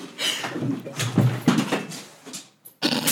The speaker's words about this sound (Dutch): Oh, de hond. Oh, Lola. Nee, de, en de hond de kabel doorbeet.